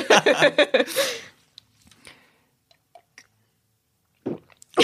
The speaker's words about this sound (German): alle mal ruhig sein und mal zuhören, wie … schluckt